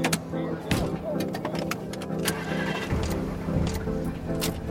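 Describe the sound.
A car engine hums steadily from inside a vehicle driving through Los Angeles, a continuous low drone with occasional clicks and bumps, while voices murmur faintly over it.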